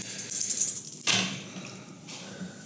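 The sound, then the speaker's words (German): Dice are rolled for a game check against willpower, that is intelligence, clattering and rattling across a hard surface in a quick run of small clicking impacts with a sharp rolling burst midway, fairly quiet, with no voices. “äh, wogegen muss ich jetzt würfeln nochmal?”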